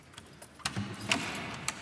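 A key turns in a door lock, giving three sharp metallic clicks spaced unevenly over a low, soft background rattle; no one speaks.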